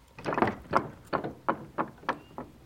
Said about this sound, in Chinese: 最小的一只山羊，嘎啦嘎啦，最先过桥。当它过桥时，桥就会发出嘎啦嘎啦的声音。